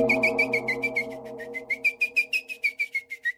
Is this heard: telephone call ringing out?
no